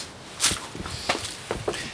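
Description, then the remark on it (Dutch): Several soft footsteps crunch at a steady walking pace, with brief scuffing transients over a quiet outdoor background and no talking, as people walk through a winter garden in the middle of the city, near the Utrechtse straat. “We lopen nu door een mooie wintertuin heen.”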